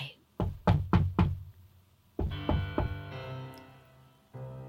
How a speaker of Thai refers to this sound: เมื่อสุดเฉลียงมีประตูที่ปิดอยู่ เขาหยุดยืนหน้าประตูนั้น ยกมือเคาะสองสามครั้ง แล้วจึงเปิดประตูเข้าไป